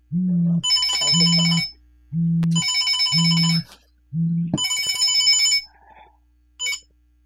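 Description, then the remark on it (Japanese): A mobile phone rings in repeated bursts, a low buzzing tone paired with a bright, trilling ringtone, loud, followed by a brief high chirp as the ringing stops. “えー、無料占いの解説のページに電話番号が書いてあるので、電話してもらえればつながりますが、えー、電話来るってことならちょっと準備しておきましょうか。”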